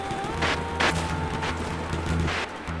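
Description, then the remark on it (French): Several gunshots crack out at irregular intervals over a steady low mechanical drone, each burst sharp and fairly loud, followed by an explosion, with no voices present. “Soudain, on entendit des coups Une explosion.”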